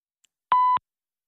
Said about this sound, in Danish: Personen, du har ringet til, svarer ikke. Læg en besked efter tonen, eller prøv igen senere.